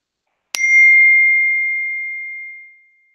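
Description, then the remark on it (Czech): A single phone message notification ding rings out clearly on its own, a bright struck tone that lingers and slowly fades over a couple of seconds, with no talking. “To mi přišla zpráva.”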